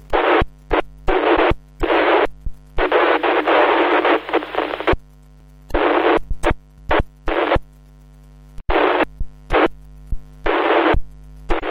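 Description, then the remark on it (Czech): Bursts of harsh radio static cut in and out in irregular chunks over a steady low hum, a radio transmission from the International Space Station (ISS) buried in heavy noise, with no intelligible voice coming through. “Jasně, počkal jsem si na ní, ale eh, bylo to hodně velkým šumu nebylo eh, prakticky rozumět, jenom nějaké jako drobný, drobný útržky.”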